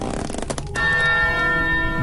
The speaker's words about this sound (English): The resounding gong that these bells make echo through the trees of this swamp, and it's just so loud. I mean, these are usually meant to notify an entire town, so it probably really startles you guys making camp upstairs.